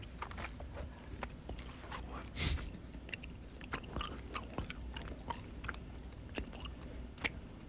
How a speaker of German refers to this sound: So, hm, bis zu den Kurznachrichten werde ich jetzt Kaugummi kauen.